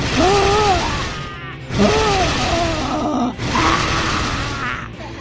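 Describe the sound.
A man's voice imitates a lion's roar, voicing the story character Mr. Flambeau showing how to roar fiercely, in a series of loud, rough, drawn-out growling bursts, about three in a row, with gravelly low tones and brief gaps between them.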